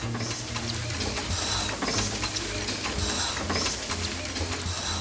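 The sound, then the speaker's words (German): A large printing press with turning rollers runs steadily at a print shop, printing book pages, producing a continuous mechanical clatter with dense rhythmic ticking and a low humming drone, loud, with no voices. “Da werden erst alle Seiten des zukünftigen Buches auf eine riesige Druckplatte kopiert und die wird dann in riesige Maschinen mit Walzen eingespannt.”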